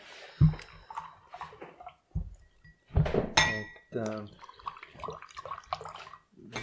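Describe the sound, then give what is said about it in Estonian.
Water is poured, with glass and dish clinks mixed in, while people talk over it. “no nii, hakkame vett peale”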